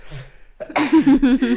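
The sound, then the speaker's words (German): A soft intake of breath is followed by an abrupt, loud nasal burst and a couple of voiced, explosive follow-ups, like a sneeze or a quick run of sneezes. “Oh, Gesundheit.”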